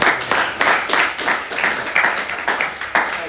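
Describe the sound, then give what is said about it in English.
A group claps in a steady, even rhythm, about three beats per second, each sharp burst riding on a constant wash of scattered clapping. No one speaks. “So now we can clap.”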